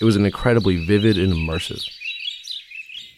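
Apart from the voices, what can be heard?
birds singing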